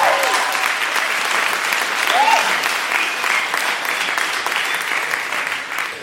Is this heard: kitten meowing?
no